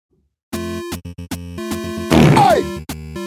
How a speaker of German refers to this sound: Ja, eindeutig Zelda, ne? Das ist eindeutig Zelda.